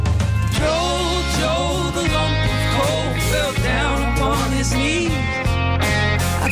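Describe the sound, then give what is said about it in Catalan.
A loud, full-band pop-rock Christmas song plays continuously, a sung melody riding over steady drums, bass and bright guitars. “com és habitual, sempre que arriben aquestes dates ens regalen una cançó.”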